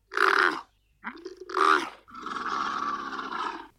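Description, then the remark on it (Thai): A camel grunts and bellows in three loud, rough bursts, the first two short and the last a long, throaty moan stretching over a second, with no talking. “ก็ลุงหมอขอยกตัวอย่างง่ายๆ นะครับ อูด”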